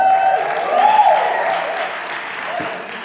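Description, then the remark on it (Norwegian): An audience gives another round of applause, a dense wash of clapping with a few whistles or cheers riding on top, holding fairly loud and even throughout. “Kan vi ikke gi dem en applaus til?”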